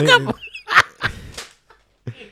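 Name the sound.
voice imitating chicken clucking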